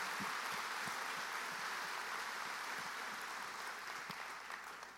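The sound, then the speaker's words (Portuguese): An audience applauds the Lord steadily, a dense wash of many hands clapping at a fairly loud, even level that tapers slightly toward the end, with no voices standing out. “Aplauda o Senhor.”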